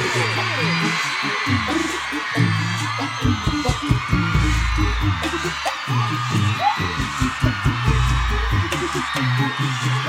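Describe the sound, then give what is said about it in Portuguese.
A big crowd at a concert yells and whoops continuously over thumping live music, with sharp cheers rising above a steady roar of voices. “Agora gritem pra mim que eu tiro.”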